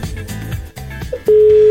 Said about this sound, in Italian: Squilla ancora, al quarto squillo fanculizziamo, eh.